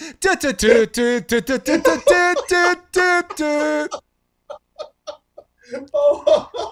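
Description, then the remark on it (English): A voice loudly imitates the Dixie horn tune of the General Lee, a car with a Confederate flag on it, a quick run of melodic, horn-like sung notes lasting a few seconds, followed by quieter scattered vocal sounds. “a car that has a Confederate flag on it called the General Lee. Lee. And when you honk the horn, what did the horn sound like?”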